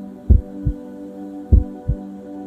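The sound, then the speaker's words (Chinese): A slow heartbeat: two deep, muffled lub-dub thumps about a second and a quarter apart, with a steady low hum underneath. No one speaks. “极光在这渐渐缓慢的心跳声中，变换了无数个样子。”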